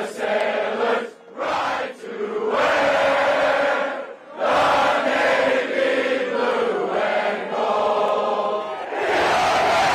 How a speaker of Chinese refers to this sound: 但无论是哪届学生，最终都如愿在纪念碑前大喊“菜鸟不在”，升等晋级。